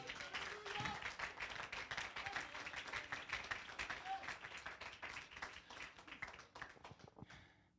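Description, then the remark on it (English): An audience claps hands together in a dense, sustained burst of applause lasting several seconds, with scattered voices calling out underneath before the clapping thins and fades at the end. “Clap your hands unto the Lord if you believe it.”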